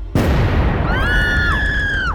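A sudden, loud bang hits something close by, leaving a noisy rumbling wash, and about a second later several high-pitched screams rise together over it.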